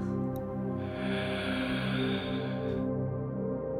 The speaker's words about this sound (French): J'inspire.